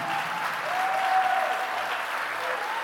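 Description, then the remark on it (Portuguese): A crowd claps loudly and steadily for a group of people who are standing, a dense, continuous wash of applause for the full few seconds with no talking over it. “Eu queria muito que você aplaudisse bem forte essa galera que está de pé.”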